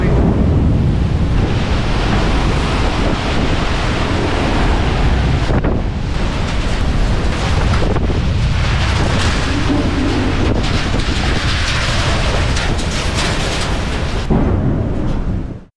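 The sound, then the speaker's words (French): Loud, roaring wind of a derecho windstorm, recorded last May, blasts continuously, buffeting the microphone with heavy rumbling gusts and a broad rushing hiss, like a violent storm howling, with no voices. “C'est en fait une tempête d'un style particulier qu'on appelle un derecho.”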